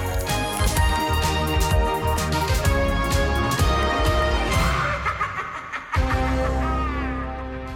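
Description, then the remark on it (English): Someone vocally imitates the TARDIS time machine materialising: a loud, continuous wheezing groan that rises and falls for several seconds, with a brief break near the end. “it's a TARDIS.”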